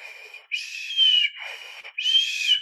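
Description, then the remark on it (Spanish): An airy whistle imitating a mother's slow breathing as a fetus would hear it in the womb, in water: a steady tone that swells louder twice, with softer, hissier stretches between, like inhaling and exhaling. No talking. “Entonces, exagerando la respiración, considerando que el feto esté en, agua, es más o menos como un silbido.”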